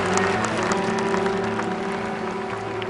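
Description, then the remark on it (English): A large audience gives a standing ovation, a dense wash of many hands clapping at once that stays full and even throughout, with a faint low hum beneath it. “That was a cheap way of getting you to do a standing ovation.”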